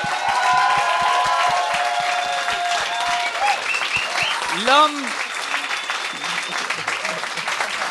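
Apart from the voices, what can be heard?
audience applause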